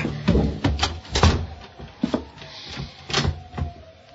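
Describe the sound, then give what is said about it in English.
A closet door is shut with a series of muffled wooden knocks, scrapes and thuds, spread irregularly over a few seconds with no one speaking. “I pushed her body into the closet next to the body of Mr. Field and closed the door.”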